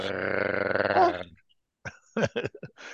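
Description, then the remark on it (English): A person imitates gargling with a loud, rough, bubbling throat sound held for over a second, followed after a short pause by a few choppy voiced bursts. “Well, arg sounds like what you do when you gargle.”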